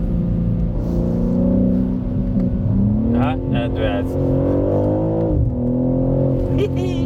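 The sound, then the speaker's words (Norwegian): A BMW M3 Touring's powerful engine revs loudly, its pitch climbing and surging through a couple of throttle blips, while a person speaks briefly over the steady mechanical roar. The car is on winter tyres in slushy weather. “Jepp, BMW M3 Touring er her!”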